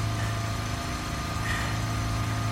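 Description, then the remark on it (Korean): A motorcycle engine runs steadily at a low, even idle, its deep humming drone filling the whole moment without change in pace or loudness, and no voices are heard. “오토바이 타니까 좋냐?”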